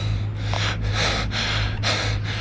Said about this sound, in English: Fortunately, he's not much of an athlete. …'s bent over, breathing hard.